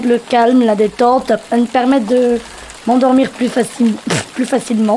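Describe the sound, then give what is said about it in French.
Steady rain hisses and patters softly throughout, a fine crackling wash sitting beneath a woman speaking calmly in the foreground. “Le deuxième son que tu vas nous présenter, c'est le son de la pluie.”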